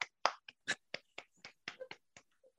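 Sparse, scattered hand clapping: about a dozen sharp, crisp claps at an uneven rhythm, fairly quiet and with no voices, like a few people applauding briefly.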